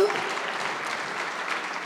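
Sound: audience applauding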